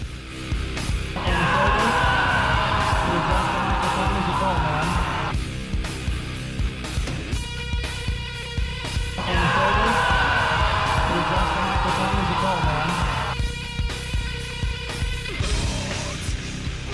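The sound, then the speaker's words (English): A loud music remix built around a woman's screamed "no" at an inauguration, looped over and over between rhythmic beat sections, with the drawn-out scream returning in long repeated blasts. “So everybody's put out these songs with her screaming. Here's my song.”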